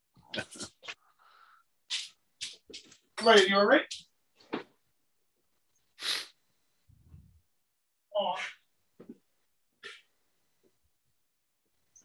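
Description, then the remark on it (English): A dog snorts and sneezes repeatedly in sharp bursts spaced a second or two apart, sounding strained, while a person briefly speaks and laughs between them. “Hold on, my dog's like dying over here.”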